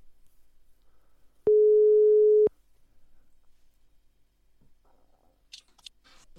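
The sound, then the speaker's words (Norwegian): A single loud, steady telephone ringback tone sounds over a phone line connected directly into a mixer, lasting about a second, then cuts off into near silence broken by a few faint clicks and rustles. “vi har kobla en telefon rett inn i mikseren, så dette får vi bare se. Dette er bæren. Skal jeg spille en rolle? Blir det en tulletelefon? Dette her nå. Oi, det ringer jo.”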